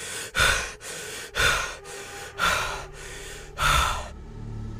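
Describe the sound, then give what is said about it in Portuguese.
Heavy panting of a person waking from a nightmare: a run of about eight ragged breaths, the loudest sharp gasping inhales alternating with softer exhales in a quick, uneven rhythm, with no talking. “Eu acordei ofegante.”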